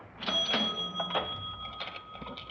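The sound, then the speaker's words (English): A cash register drawer opens with a bright ringing bell and a run of rattling mechanical clicks and clunks, with no one talking. “I, I told you, there's the cash register. Help yourself.”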